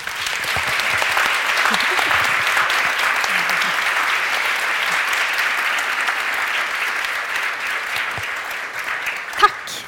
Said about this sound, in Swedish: Ja, jag tycker först att vi ska tacka våra kära gäster här ikväll. Jag tycker vi alla ger dem en jättestor applåd.